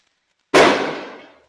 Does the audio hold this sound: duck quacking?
no